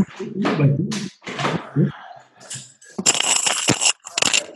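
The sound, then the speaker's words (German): A printer running: a series of low mechanical thunks and clunks, then a louder stretch of buzzing, rattling feed noise with a high whine, ending in a couple of short clicks. “tut mir leid, mein Drucker, der will mich hier, glaube ich, echt verarschen.”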